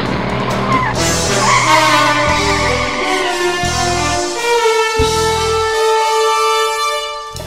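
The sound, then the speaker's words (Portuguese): An Aston Martin DB5 car engine revs loudly, its pitch climbing through gear changes as tires squeal and the car speeds off, with no voices present. “então entra nesse DB5 aqui e vai embora.”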